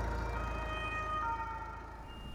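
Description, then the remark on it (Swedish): An ambulance siren wails steadily over a low engine rumble as the ambulance drives off with a patient toward Hospital Central de la Defensa, its tones holding level before shifting pitch slightly and fading a little as the vehicle pulls away. “Han stänger igen bakluckan och snart rullar ambulansen iväg.”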